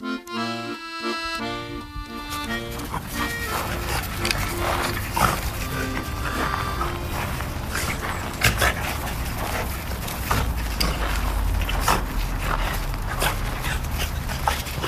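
Two office dogs, Buddy and Lotta, romp and play in the courtyard, with steady rough growling, snarls and yips over scuffling and panting; a few brief tonal notes sound at the very start.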